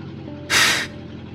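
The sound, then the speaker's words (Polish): A steady low engine rumble of a van runs throughout, broken midway by a short, loud burst of hissing air, like a brake release, before the droning hum continues on its own. “Słyszał warkot silnika i czuł dudnienie.”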